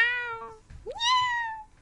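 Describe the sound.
Two clear cat meows in a row: a steady, tonal first call, a short pause, then a second one that rises in pitch before trailing off. Fairly loud, with no talking.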